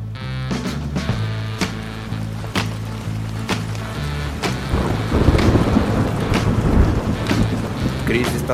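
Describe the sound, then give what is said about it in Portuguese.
Steady rain falls, building into a heavy downpour over several seconds while deep rumbling and low tones sit underneath, with occasional sharp taps cutting through. “Estava sentado no chão, debaixo da chuva, completamente sujo de lama.”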